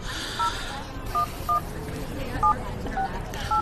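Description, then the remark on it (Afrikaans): Six short cellphone keypad dialing tones beep at an uneven pace, clear, over a steady hiss of background noise. “Selfoon teen die oor.”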